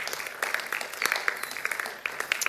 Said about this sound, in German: Da können wir eigentlich auch mal klatschen.